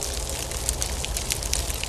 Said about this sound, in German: So ein Eisregen macht, wenn man genau hinhört, auch ein ganz spezielles Geräusch.